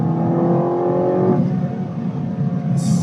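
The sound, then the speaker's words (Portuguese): A car engine with its stock, unmodified catalytic converters and mufflers roars loudly, its pitch rising with strong harmonic whine as it accelerates, then settling into a deep, steady rumble with no one speaking. “Então, o ronco dele, ele não tá. Ele tá com todos os catalisadores, abafadores que ele tem, não foi alterado.”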